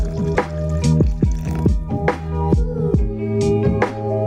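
Water pours into a container in a steady trickle, broken by repeated splashy drip-like plops roughly every half second, with a steady tonal hum underneath.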